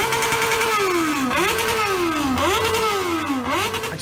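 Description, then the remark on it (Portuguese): Loud motorcycle engines rev hard in repeated surges, pitch climbing and dropping about three times in a steady cycle, with no voices. “estoura as motos tudo, tem moto que pega fogo”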